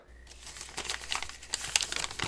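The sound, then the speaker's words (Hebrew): Busy crinkling and rustling of paper as a package is torn open, a continuous run of sharp crackles lasting a couple of seconds with no voices. “באמת, ת, ת, תראו, הנה, רגע שניות, תנו לי לנסות לפתוח את זה רגע.”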